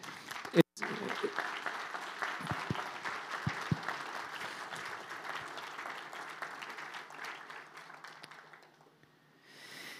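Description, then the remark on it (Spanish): An audience bursts into sustained applause for the Lord, a dense wash of clapping that holds steady for several seconds before thinning out and fading near the end, with a few voices mixed in. “Puedes dar un aplauso al Señor, de verdad que...”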